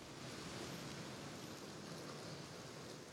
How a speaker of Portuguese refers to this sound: Olha, nesse momento cai uma chuva bem fraquinha por aqui, praticamente uma trégua.